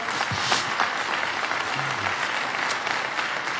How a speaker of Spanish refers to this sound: ¿Cuántos necesitan más de Jesús? Vamos, y va a aplaudir al Señor.